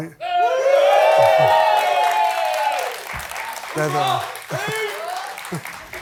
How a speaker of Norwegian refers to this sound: Hos Stephen Colbert denne uka fikk Harry jubel da han henvendte seg til krigsveteranene i salen og snakket om sine opplevelser i Afghanistan.